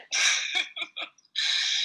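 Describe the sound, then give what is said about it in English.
A person demonstrates a voiced yawn, mimicking a natural yawn with added sound: a long airy exhale, a few short choppy breaths, then another sustained, hissy stretch of breath. “if you were to mimic a natural yawn with adding sound to all of that at your very top peak, which would be your Y”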